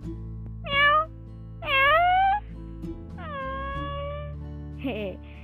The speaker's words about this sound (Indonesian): Iba kan kucing pasti ngomongnya miong ya